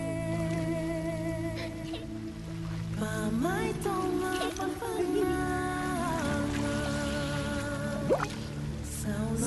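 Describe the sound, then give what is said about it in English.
Water splashes and drips in irregular bursts as a female figure plays in the water in a movie trailer, over a steady bed of sustained music. The splashes are moderately loud, with no talking. “Someone where she's playing in the water.”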